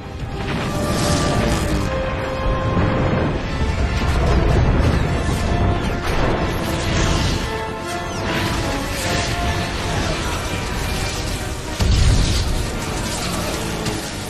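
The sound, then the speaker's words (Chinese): A dense, roaring barrage of sci-fi explosions as a swarm of squid-like machines blows up one by one, with repeated heavy booms and crashes, the loudest bursts near the start and end, layered over a sustained droning musical score. “此时的男主已经认清了自己跨界的能力，再次伸出手，乌贼们逐一爆炸。”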